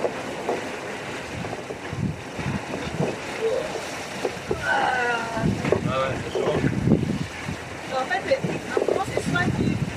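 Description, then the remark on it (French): Heavy waves slap and surge around a sailing boat amid steady wind rumble, with irregular loud splashes; voices shout and talk over the churning water. “grosses vagues.”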